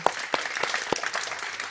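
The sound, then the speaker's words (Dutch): Live audience applause fills the hall of the Koninklijke Bibliotheek (Dutch Royal Library), a dense patter of many hands clapping at moderate loudness with a few sharper individual claps standing out, applauding author Franka Treur. “En om dat bewijzen geven we allemaal nog één applaus aan de auteur Franka Treur.”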